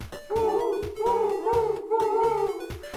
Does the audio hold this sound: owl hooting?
yes